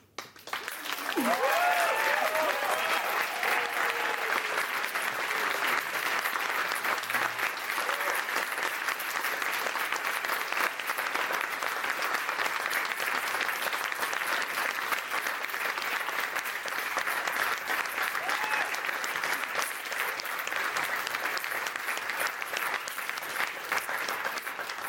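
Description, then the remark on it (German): Sustained audience applause at a live music show at a literature festival, a dense, steady patter of many hands clapping for the whole stretch, with a brief voice or whoop near the start before the clapping evens out. “Und das wird jetzt der Applaus, den werden wir schneiden.”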